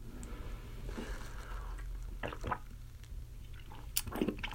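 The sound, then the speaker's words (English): Wet slurping and swallowing sounds of someone taking the first sip of a drink of the night, a couple of short moist bursts over a low steady hum, with no talking. “Get our first sip of the night in there.”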